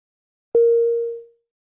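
A single clean chime-like start cue tone from an Eiken Grade 5/4 English listening exercise strikes sharply and rings steadily for under a second before fading out, heard alone against silence with no talking.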